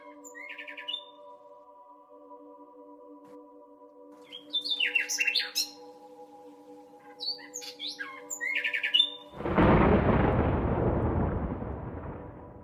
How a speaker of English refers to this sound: And from a distant copse, a nightingale began to sing.